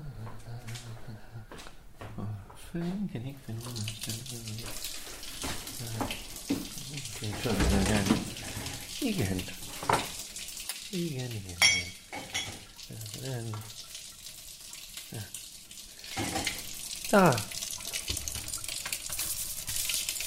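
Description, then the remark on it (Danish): Tap water runs steadily into a sink while dishes are washed at Stjernen, a culture house, with occasional clinks and splashes. People talk over the water throughout. “direktør og daglig leder af Kultur- og hos Stjerne, og nu fandme også opvasker.”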